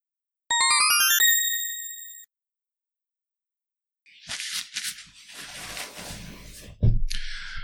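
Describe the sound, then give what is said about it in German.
A short, bright ringtone-style jingle of quick rising electronic notes, the altered title melody of the segment Abgehörte Telefonate, rings out and holds briefly, then after a pause comes a burst of rustling, clattering noise. “Die geänderte Titelmelodie von Abgehörte Telefonate lasse ich zu eurer Belustigung ebenfalls mal drin.”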